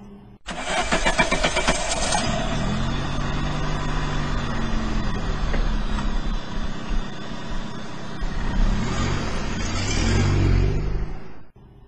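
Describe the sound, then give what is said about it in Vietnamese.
A car engine cranks and catches, then runs steadily, its pitch rising and falling as it revs and pulls away, with a final louder rev before it cuts off. “ngài đứng dậy bận áo bịt khăn rồi ra xe hơi mà đi”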